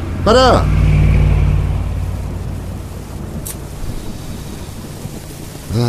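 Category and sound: nature, rain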